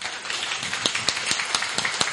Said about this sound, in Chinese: OK，接下来到我们的主咖要登场了，大家来一点掌声送给他。